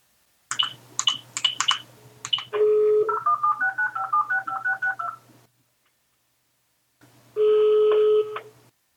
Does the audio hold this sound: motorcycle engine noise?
no